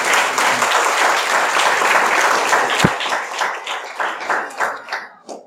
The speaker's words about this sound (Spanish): Den un aplauso al Señor, por favor, en esta noche.